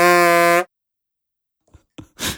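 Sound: censor bleep tone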